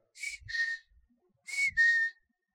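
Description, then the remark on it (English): A person whistles an imitation of a bird call heard by the water near the 21st Street Bridge: two short two-note phrases, each a quick rising chirp then a sustained note, separated by a brief pause. The whistling is fairly clear. “And suddenly I heard this noise, and, and it was like this.”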